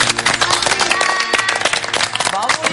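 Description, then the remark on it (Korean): An audience applauds the lecturer at the end of a lecture about King Sejong: a dense, steady wash of many hands clapping continues for about three seconds, loud and even, with some voices mixed in underneath. “우리 선생님께도 박수를 한번 보여드립니다.”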